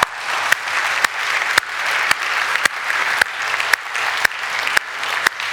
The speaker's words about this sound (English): yeah, give him a clap.